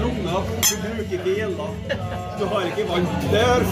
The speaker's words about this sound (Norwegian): Kan vi være snill skåle for en femte gang?